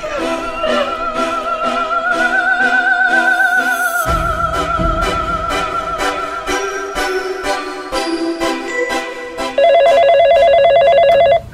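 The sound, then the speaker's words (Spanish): A telephone rings as a teacher calls the police from a high school library phone, over a sustained, tense musical drone, and near the end a loud, steady electronic tone cuts in. No one speaks. “Al fondo escuchaba a los psicópatas aproximándose, así que logró acercarse al teléfono del lugar y llamó a la policía.”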